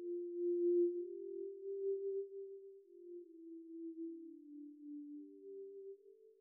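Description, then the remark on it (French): A simulated tinnitus tone plays alone: a steady, low-pitched pure ringing that drifts slightly in pitch and holds continuously at moderate loudness throughout, with no voices. “C'est surtout euh, pour couvrir ce bruit d'acouphène qui me gêne beaucoup.”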